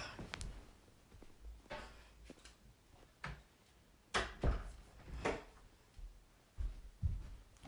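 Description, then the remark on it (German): A door is being closed: a series of soft clunks and rattles of handling, then a firmer thud about halfway through, with a few lighter knocks after. No one speaks. “Ich schließe kurz die Türe noch.”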